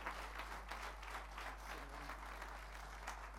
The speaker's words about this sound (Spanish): por favor pase a este lugar y usted ese fuerte aplauso para el Señor.